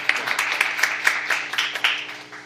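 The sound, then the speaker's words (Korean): An audience applauding a guest at the end of an interview on a live show, a steady crackling patter of many hands clapping with a few sharper claps standing out, moderately loud and continuing without a break, with no one talking over it. “박수 좀 주세요.”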